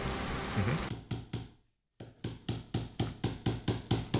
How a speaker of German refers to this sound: Bei mir wird gerade gehämmert, direkt gegenüber von meiner Wand. Ich hör's, ja. Ja, ich hör's auch. Ich habe mir gerade gedacht, äh, ich habe jetzt gedacht, da klopft jemand von euch irgendwie mit dem Stift auf den Tisch oder so.